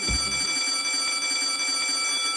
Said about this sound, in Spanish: Y eso que suena... Sí, es un timbre.